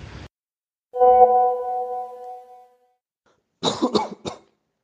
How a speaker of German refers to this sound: das gehört hier übrigens mit zur Aufnahme das Husten, denn ich bin die letzten Tage leicht erkältet gewesen.